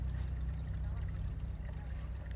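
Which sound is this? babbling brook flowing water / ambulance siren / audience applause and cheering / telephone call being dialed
babbling brook flowing water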